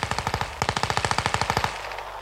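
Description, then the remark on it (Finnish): Machine gun fire at a man fleeing through snow toward the forest edge, in two rapid bursts: a short string of sharp cracks, a brief pause, then a longer steady volley of about a dozen shots that stops abruptly. No voices. “Mutta sitten iski häneen suihku, ja jälleen oli hangella yksi liikkumaton möhkäle lisää.”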